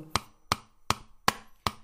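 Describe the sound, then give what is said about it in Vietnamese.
Five sharp hammer blows strike at a steady, even pace, each a crisp percussive knock with a brief ringing decay, as someone drives nails into a wall on the upper floor of a house, with no voices present. “Đúng lúc này trên tầng phát ra những tiếng động lạ Tiếng động lạ phát ra như có ai đó đang đóng đinh vào tường Đúng là tiếng búa”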